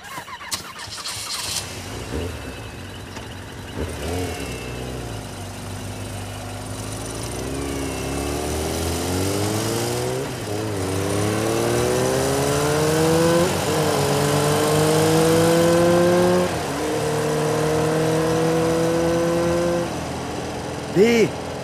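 A car engine runs at a low, steady idle, then revs up in a series of rising pulls, dipping briefly between each as it shifts through gears, loud throughout.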